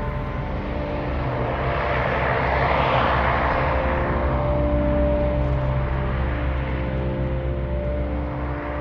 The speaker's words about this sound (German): Die Mähdrescher fahren mit riesigen Scheinwerfern übers Feld auf unser Haus zu. Keine Ahnung, was die ernten, aber klingt wie das Ende der Welt.